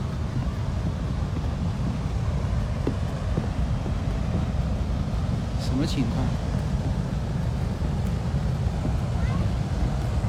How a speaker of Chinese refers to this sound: 跟下雨一样，这是一个泉喷上来。